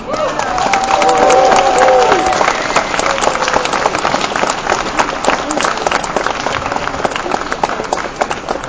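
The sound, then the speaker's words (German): An audience bursts into steady applause for a winner of last year's prize for comic art, dense overlapping claps filling the whole stretch, with a brief tonal whistle or cheer early on and a murmur of voices underneath. “Und er ist, das darf man mit einem etwas kräftigeren Applaus vielleicht gleich auch nochmal mit kombiniert ausdrücken, er ist ein Preisträger vom letzten Jahr für den Preis für komische Kunst”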